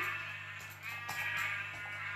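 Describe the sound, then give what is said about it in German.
Quiet, wavering sheep bleats run through most of the two seconds over a low steady hum, a few overlapping calls with no voices present. “Schafe gibt es auch. Da müssen aber noch ein paar mehr hin.”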